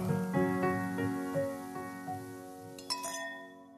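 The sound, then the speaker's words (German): Several glasses of apricot schnapps clink together in a toast, a quick series of bright taps whose ringing tones hang in the air, ending with a sharper, louder clink near the close. No one speaks. “Prost, meine Lieben. Prost. Prost. Prost. Das müssen wir jetzt so dazu.”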